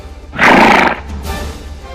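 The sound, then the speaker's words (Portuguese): A horse lets out one loud whinny lasting about half a second, followed by a quieter trailing snort over a low, steady background rumble. “Sobe no cavalo, vamos embora, vamos embora, vai, vai, vai.”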